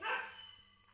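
A single dog bark rings out at the start, harmonic and fairly loud, then trails off into a fading tail over quiet room tone.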